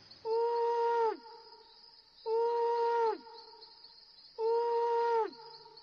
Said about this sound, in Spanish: Sid dormía plácidamente, tanto que el búho tuvo que ulular tres veces para despertarlo